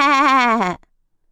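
A single loud, wavering goat bleat, voiced by a person imitating the animal, lasting under a second with a trembling pitch before cutting off into silence.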